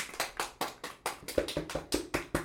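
A short burst of applause from just a few people, about a dozen crisp, evenly spaced claps in a steady rhythm over two and a half seconds, with no voices.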